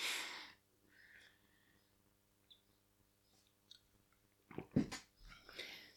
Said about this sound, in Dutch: Even een slokje water.